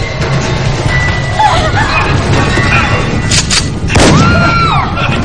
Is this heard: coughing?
no